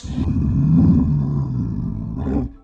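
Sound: bear roaring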